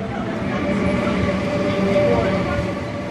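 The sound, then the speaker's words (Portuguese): A passenger train rumbles steadily along the Beira Baixa railway line in Portugal, from Covilhã to Guarda, heard from inside a carriage with politician Mariana Mortágua aboard, with a constant loud drone and faint rhythmic wheel clatter, and muffled voices beneath the noise. “Da Covilhã à Guarda, Mariana Mortágua viajou de comboio para mostrar que há coisas que foram bem feitas.”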